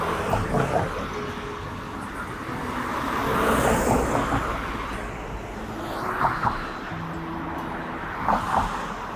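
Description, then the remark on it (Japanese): A steady stream of cars rushes past on a street while waiting at a traffic signal, the broad roadway rumble swelling and easing as vehicles go by one after another, with a louder pass around the middle. “信号というか車の 波が途切れる街だけどめっちゃ来てるから無理だな、これ。”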